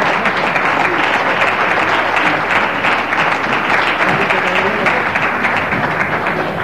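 Loud, sustained applause from a crowd at the seventh edition of the Premis Infoesport awards, a dense wash of many hands clapping steadily for several seconds with no clear pauses, with some voices mixed in underneath.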